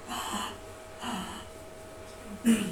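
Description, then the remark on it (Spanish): A voice imitates agonal breathing with three harsh, breathy gasps spaced about a second apart, fish-like and irregular, the last one sharper and louder, with no talking in between. “Porque lo que, lo que pasa es que está teniendo un efecto, que no sé si se acuerdan que les dije que es la respiración agónica, que es como respiración de un pez.”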